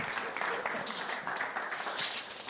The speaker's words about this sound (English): We give you a round of applause.